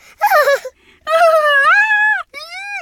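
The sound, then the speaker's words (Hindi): A voice mimics the excited squeals of two baby squirrels riding in a speeding car: three high, wavering, wailing cries, the middle one longest and rising. The cries are separated by brief pauses and are loud, with no other talk. “अब जा रही थी हंड्रेड परसेंट सौ प्रतिशत गाड़ी स्पीड जा रही थी और अंदर दोनों गिलहरी बच्चे हो वो क्या सी कैसी आवाजें कर रहे थे”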